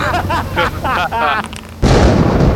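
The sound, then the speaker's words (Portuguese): A person talks briefly, then a sudden, very loud thunderclap from lightning striking an airplane bursts in, a sharp crack that swells into a dense, roaring rumble lasting to the end. “O avião é atingido por um raio, uma fração fração de segundo antes de vocês ficarem surdos com um trovão que ressoa praticamente dentro dos ouvidos de vocês.”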